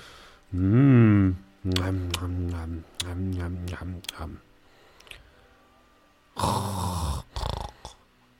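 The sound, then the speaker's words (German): A voice imitates the snoring of people sleeping in surrounding tents: a drawn-out nasal snort, a run of rattling throaty pulses, then a couple of harsh, breathy rasps after a short pause. “Hör ich aus den umliegenden äh, Zelten eigentlich Geräusche, Schnarchen, Schlafen?”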